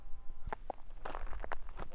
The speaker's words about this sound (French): Il me demande de marcher en arrière tout doucement. Et là, il me fait signe, hop, de s'arrêter.